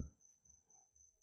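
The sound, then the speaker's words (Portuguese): A cricket chirps steadily outside a house in a high, thin continuous tone, fairly clear over a quiet, low background hum. “do, de Grilo, se porventura estiver captando e, e porventura também que eu não consiga remover o, esse ruído na hora que eu estiver editando, então já vou pedir desculpa.”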